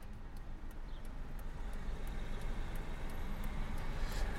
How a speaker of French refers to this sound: Donc on est de retour dans la voiture, cette fois-ci pour aller où ça va On va à l'Institut des sciences de la vigne et du vin à Villeneuve-d'Ornon, donc euh, environ 30 minutes euh, de Bordeaux.